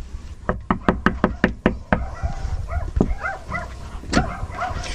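A quick, loud run of about eight knocks raps on a front door, followed by a small dog's excited barks and whines.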